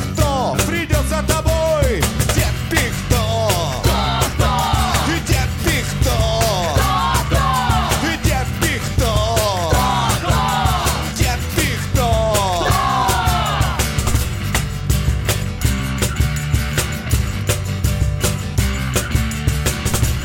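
An audience in a bar sings along loudly over a full, driving band, the chorus carrying steadily without a break.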